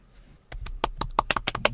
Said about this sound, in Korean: 박수를 왜 쳐요?